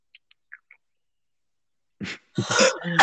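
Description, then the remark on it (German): A few faint clicks, a pause, then a short breathy gasp and a longer rough, sputtering throat noise from a person needing to sneeze, like a sneeze that builds up but never fully breaks, fairly loud. “Ich muss niesen, aber da kommt nichts.”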